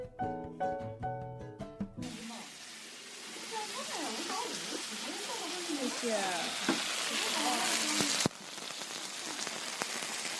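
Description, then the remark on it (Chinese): A short burst of tonal music gives way to a steady, crackling hiss of black-pepper seafood Japanese udon, with squid, stir-frying on an iron griddle, continuous and fairly loud, with one abrupt momentary break near the end. “我们已经听到了熟悉的铁板的声音，这个呲啦呲啦的真的是 太诱人了。”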